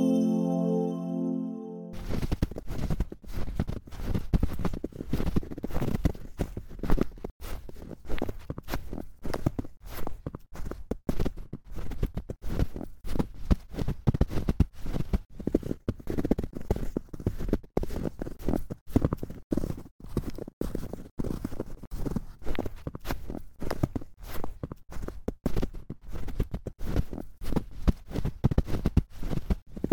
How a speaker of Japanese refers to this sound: 雪を踏みしめる音特にねあの雪が降っている最中の音っていうのが一番いい音がすると思ってるんですけれどもこれから寒くなる秋田県の皆様がいつも聞いているあの音今日は心穏やかに聞いてみてください